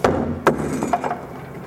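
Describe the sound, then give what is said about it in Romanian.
Heavy wooden blows strike a wooden door being broken down, in quick succession: two loud thuds followed by a few lighter knocks and rattles, with no voices. “Ok, cum facem? Dărmați ușa.”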